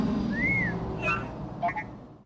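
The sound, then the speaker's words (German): The droid R2-D2 whistles approvingly: a short series of electronic whistles, a smooth rising-and-falling tone, then two quick warbling chirps, fairly clear over a low background rumble. “Da also, pfeift sogar R2D2 anerkennend.”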